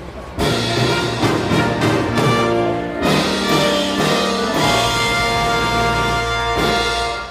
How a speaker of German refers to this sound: Und äh, ich habe einen kleinen Tusch vorbereitet, denn die Hörerin bzw. der Hörer des Jahres 2021